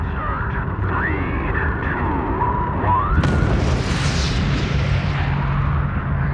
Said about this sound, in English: When the uh, solid rocket motors light, uh, 7 million pounds of thrust absolutely gets your attention.